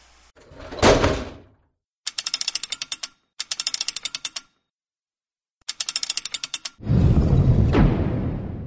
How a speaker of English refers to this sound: I guess we gotta get it locked up again. Yeah, yeah. Give me just a second.